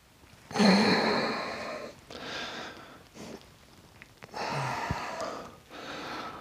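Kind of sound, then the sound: human body sound, yawning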